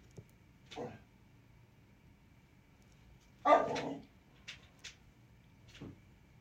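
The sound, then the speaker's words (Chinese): A small dog getting ready to fight barks several times with short, sharp yaps, one louder cluster in the middle and quicker, fainter barks after, separated by brief pauses over a quiet background. “可的小狗准备打架。”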